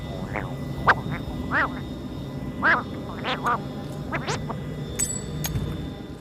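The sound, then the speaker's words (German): A recycled squeaky sound effect of a trunk-nosed alien creature with a flute: a string of short, warbling, nasal squeaks and chirps in an irregular rhythm, clear over a low rumbling background, with no one talking. “der mit der Flöte, der quietscht genauso wie Garindan in Episode 4”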